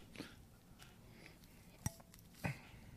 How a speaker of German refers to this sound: Oh, schön mit. Ja. Glasgeräusch. Mhm. Soundkulisse, ne?